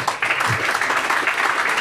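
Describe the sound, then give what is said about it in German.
A live audience claps continuously, a dense, steady wash of many hands with no clear individual beats, fairly loud throughout the short stretch. “die klatschen, die klatschen auch immer genau dann, wenn wir sagen, ihr müsst klatschen, dann die klatschen.”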